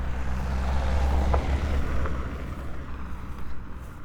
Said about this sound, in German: Achtung, nicht wundern, es kommen nochmal zwei Autos hier vorbeigefahren. Warte, ich gehe weg zur Seite hier.